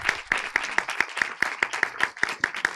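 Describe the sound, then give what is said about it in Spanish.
Applause from an audience as a journalist of the newspaper El País is introduced as a panel member: a quick, steady run of about a dozen sharp hand claps in an even rhythm, moderately loud, with no voices over it. “Un aplauso para él, que estuvo en la alfombra roja.”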